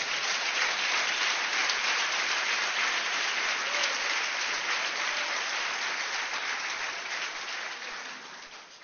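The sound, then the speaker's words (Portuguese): An audience applauds Christ together in a steady, dense wash of clapping that holds at a fairly even level for several seconds before thinning slightly toward the end, with no one speaking over it. “Você pode aplaudir a Cristo? Faça isso.”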